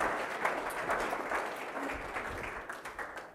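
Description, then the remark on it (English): A church group applauds steadily, a dense patter of many hands clapping at once with no pauses, holding an even, moderate loudness throughout, as people clap for themselves to thank those who got on board this year. “Give yourselves a clap and a pat on the back.”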